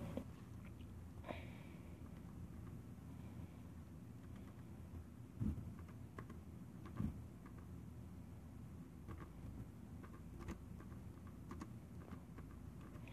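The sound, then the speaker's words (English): Quiet, irregular tapping of keys on a computer keyboard, with a couple of slightly louder clacks midway, over a low background hum and no talking, as someone types to look something up online. “I'm typing it right now.”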